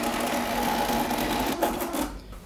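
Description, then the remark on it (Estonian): The small built-in printer of an autorefractometer whirs and buzzes steadily as it prints a result, a continuous mechanical hum that drops off near the end. “nii, ma korra prindin ta välja, et natukene ta teeb siin häält ka.”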